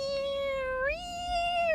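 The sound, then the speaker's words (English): A voice imitates a cat with a high, sweet, sustained sung meow that glides upward in pitch partway through and holds. It is steady, with no talking. “doing this sort of cat singing in the background, really sweet and high.”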